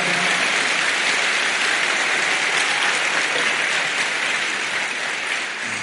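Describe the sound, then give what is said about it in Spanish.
An audience claps for the Lord in sustained, dense applause, a steady loud wash of many hands that holds for several seconds and eases off slightly at the end, with no voices standing out. “Vamos, dele palmas, que valga la pena ese aplauso al Señor.”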